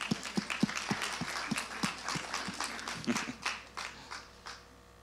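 Brief applause from a small group: a quick, uneven run of sharp claps that gradually thins out and fades over about five seconds, with no one speaking.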